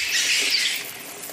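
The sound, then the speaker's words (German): Continuous high-pitched squeaking and scratchy scurrying of rats scrambling about in the dark aboard a ship, one running over a man's legs, busy and steady for a moment with no voices. “Dann huscht eine Ratte über seine Beine.”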